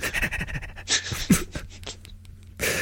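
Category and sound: human body sound, panting breaths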